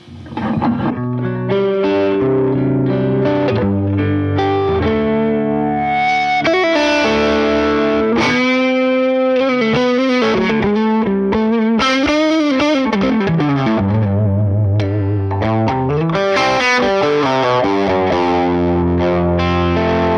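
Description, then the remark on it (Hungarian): An electric guitar plays sustained chords and melodic runs through an amplifier with a light, warm distortion. It holds a steady, full volume for about twenty seconds, with no talking. “És akkor arra egy kis ilyen, izé, egy kis ilyen mm, barátítónak rá lehet rakni egy kis torzítást, és akkor lesz egy ilyen szép kellemes ezénk a hangunk.”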